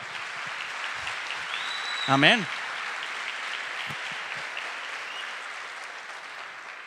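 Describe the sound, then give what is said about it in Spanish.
A church audience applauds the Lord for his scriptures, a dense wash of clapping that holds for several seconds, while a voice briefly calls out over it. “Dale un aplauso al Señor por sus escrituras.”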